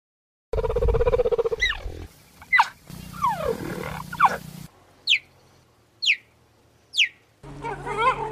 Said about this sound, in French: Une autre différence enfin entre le guépard et le léopard, eh bien c'est que le guépard pousse des tout petits cris. J'ose pas trop les qualifier pour ne pas trop me moquer, mais on est loin du cri du léopard.